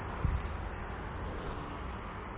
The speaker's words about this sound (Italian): No, no, è un grillo. È un grillo solitario. Ciao grillo.